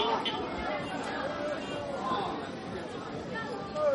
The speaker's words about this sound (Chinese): 你们听听现在周围的这个环境音，就可以感受到现在我身边有多少人。